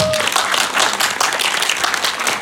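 An audience applauds to welcome the next guest, a dense wash of many hands clapping at once, loud and sustained throughout with no one speaking over it.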